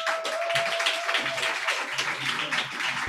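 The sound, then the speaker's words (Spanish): During a live show, a crowd breaks into steady farewell applause, many hands clapping in a dense, even wash for about three seconds, with a faint thin steady tone humming underneath during the first half. “Bueno, eh, mientras resolvemos estos problemas técnicos, vamos a despedir a la zorra con un fuerte aplauso.”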